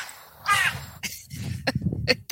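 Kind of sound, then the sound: bird, crows cawing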